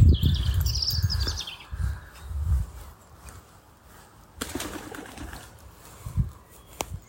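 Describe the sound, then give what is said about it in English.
A pheasant, disturbed by a person, bursts from cover with a sharp, high cackling call and a flurry of low, loud wingbeats over the first few seconds, then quieter rustling and a couple of abrupt noises follow. “That was a pheasant that I disturbed.”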